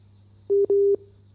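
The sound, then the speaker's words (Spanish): Two steady electronic telephone tone beeps on an international phone call, a short one then a longer one, loud and clear over a low constant hum, with no voices present. “un segundito que es una comunicación internacional. A ver si Dayana nos, nos escucha.”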